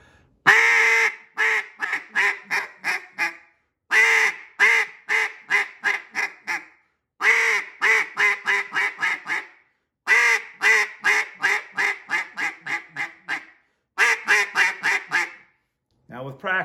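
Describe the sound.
Loud duck call quacking in five repeated sequences, each opening with a long first note dragged out with the caller's air, followed by a rapid run of shorter quacks that taper off, with brief pauses between.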